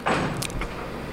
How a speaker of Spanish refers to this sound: Es que no sé si se escuchó, pero cerraron la puerta del camerino.